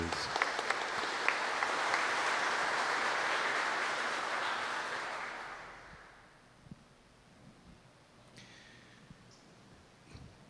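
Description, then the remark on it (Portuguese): An audience in the Basílica Velha applauds the Gospel reading with steady, dense applause lasting about five seconds, then it fades out, leaving a quieter background with a few scattered claps and soft noises. “Vamos aplaudir o Evangelho, a palavra de Jesus.”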